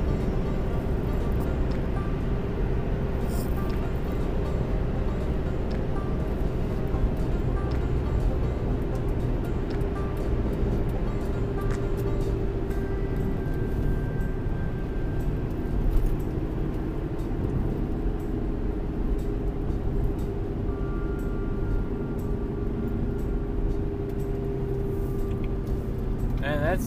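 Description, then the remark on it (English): Steady, continuous road noise from inside a car cruising at highway speed on an interstate during a morning commute: a deep, even rumble of tires and engine drone that holds at a constant level throughout. “done for the interstate portion of our morning commute.”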